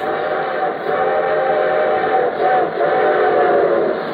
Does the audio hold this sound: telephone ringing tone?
no